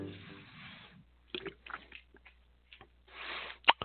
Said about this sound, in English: Oh my, I was in the middle of swallowing something here. Sorry, I was taking a cold drink.